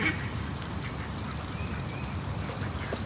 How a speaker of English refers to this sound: What the fuck are those ducks? They're doing? mating. They're getting it in like I wish I was.